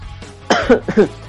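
coughing

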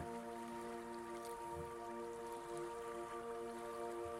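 flowing water

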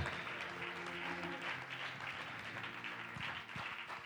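audience clapping hands

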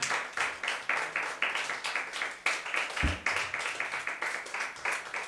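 audience clapping hands

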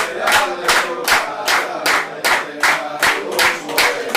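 rhythmic hand clapping

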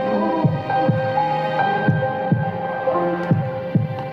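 heartbeat sound effect

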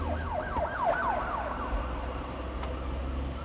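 ambulance and police sirens

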